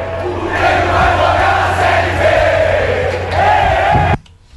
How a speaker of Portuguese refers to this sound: Só a torcida gritava: o Grêmio vai jogar a Série B, que o, pelo menos o Atlético estava fazendo a parte dele.